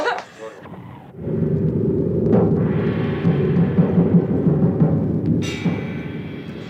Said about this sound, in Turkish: Sözüm ona yağmurdan kaçtık burada fırtınaya tutulduk yahu.